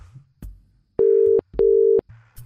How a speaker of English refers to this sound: You got a ringtone.